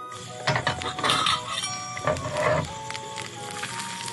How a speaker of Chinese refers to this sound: 我们接下来要开始煎牛排了。我煎牛排给大家听。 前方大量煎牛排攻击，肚子饿的请快转。